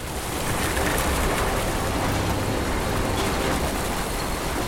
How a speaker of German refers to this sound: Und dann Jackpot. Ein erster Bohrer traf und ein Geysir an Wasser schoss drei Meter in die Luft.